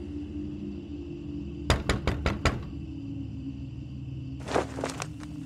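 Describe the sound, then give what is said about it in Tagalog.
A quick series of five sharp knocks from outside on the glass wall of a convenience store at two in the morning, evenly spaced, followed after a pause by a softer cluster of taps, all over a steady low hum with no voices. “Lumipas ang mga minuto at sumapit ang alas dos ng madaling araw nang biglang may kumatok sa salamin na dingding mula sa labas.”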